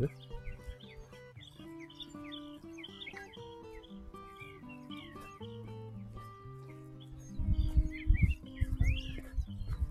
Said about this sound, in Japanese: 川もかなり増水してますね。雪解け水かな。カモがなんか泳いでますけど。鳥の声聞こえます